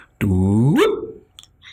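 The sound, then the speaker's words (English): A person vocally imitates the gravitational-wave chirp of a black hole merger: one loud voiced tone holds steady, then sweeps sharply upward in pitch before cutting off, with only faint breathy noises afterward. “we call that we call that very uh, aptly the chirp.”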